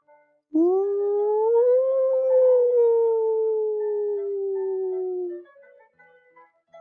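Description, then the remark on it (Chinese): A hungry wolf howls from a distance at night on the grassland: one long, unbroken cry lasting about five seconds that rises slightly, holds, then slowly sinks and fades. It stands alone, with no other sounds. “忽然，远处传来了饿狼的嚎叫声。”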